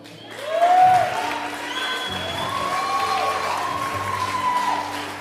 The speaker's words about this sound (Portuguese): Pode aplaudir, irmão. Pode aplaudir.